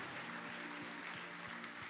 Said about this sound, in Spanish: ese aplauso de alabanza al Señor. Él es digno de ser alabado.